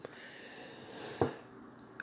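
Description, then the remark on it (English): A long, breathy yawn, with a brief sharp catch of air near the end before it trails off into quiet breathing. “I know uh, one of one listener mentioned they hate it when I yawn.”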